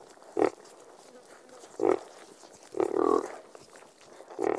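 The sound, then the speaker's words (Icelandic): Four short, throaty pig grunts come at uneven intervals, the third one drawn out a little longer, clear with nobody talking over them. “Afsakið þetta rít sem þið heyrið hér hlustendur góðir en ég varða að koma því að.”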